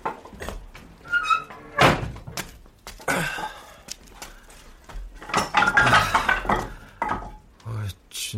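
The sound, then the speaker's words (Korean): Several hollow wooden thunks and knocks land at irregular intervals, fairly loud, as wet firewood logs are set down one on another and stacked beside an agungi (traditional Korean fire hole), with faint clattering scrapes between the heavier hits. “나는 장작을 가져다가 아궁 옆에 쌓아두고 가장 얇아 보이는 나무에 불을 붙였다.”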